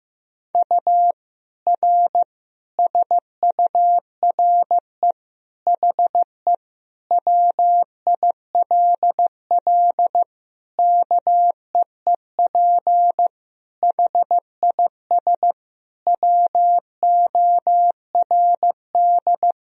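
Morse code beeps sent at 15 words per minute: one clear, mid-pitched tone keyed on and off in quick dots and longer dashes, grouped into words with short gaps between, no voices.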